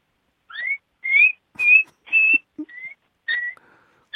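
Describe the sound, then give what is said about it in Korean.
A child imitates a mouse with a string of high, whistly squeaks, about eight short chirps in an uneven rhythm, some rising in pitch, with brief pauses between them and no talking. “쥐소리 한번 들어볼까요?”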